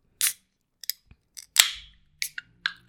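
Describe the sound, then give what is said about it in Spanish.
An aluminum can of water being opened: a few sharp metallic clicks, then a crisp crack with a short hiss of released air, and more small taps afterward. Clear, with no voices. “Hasta da satisfacción saber que vas a tomar agua con este sonido, te condiciona.”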